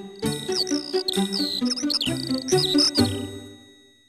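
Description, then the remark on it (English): Bright, high bird chirps and tweets repeat in quick bursts over about four seconds, layered over a steady low melodic tone, then fade out at the end. “Blue bird, blue bird, what do you say?”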